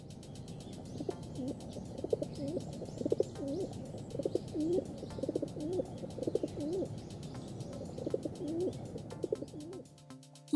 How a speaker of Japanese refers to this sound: ハトっていうと、どうしてもあの、くるくって鳴いてるイメージあると思うんですけども、これはドバトの鳴き声なんですね。今日はドバトの鳴き声を流し